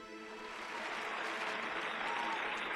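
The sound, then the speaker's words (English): A steady wash of audience applause, many hands clapping in a dense, crackling roar that holds at a fairly even loudness and swells slightly toward the end, with no voices over it. “I said a round of applause for my num dum doll.”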